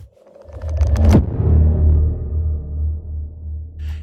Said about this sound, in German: Inzwischen ist ein Gewitter vor meinem Fenster, äh, was man so hört. Also wenn ihr da ähm, Donnern hört, das ist das Gewitter.